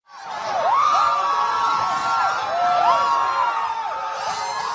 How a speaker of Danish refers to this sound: Det her det er abortmodstandere, der jubler efter, at den amerikanske højesteret fjernede kvinders ret til abort ved at omstøde dommen Roe versus Wade, og dermed slå fast, at ret til abort ikke længere er en grundlovssikret ret i USA,